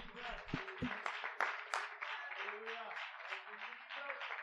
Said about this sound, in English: This people have I formed for myself, they shall show forth my praise. Would you clap your hands as you're seated right now?